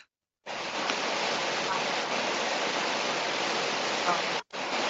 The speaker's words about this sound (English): Yeah, there's a lot of static. Yeah. Skype.